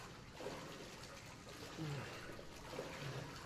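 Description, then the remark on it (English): Someone wading slowly through murky sewage water up to their mouth, a steady sloshing and swishing with a few heavier surges as the legs push forward, low and continuous throughout. “I move forward in the water.”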